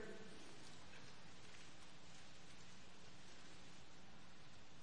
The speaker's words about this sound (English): All right, I love those pages turning.